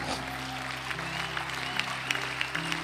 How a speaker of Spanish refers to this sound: Démosle el aplauso al Señor.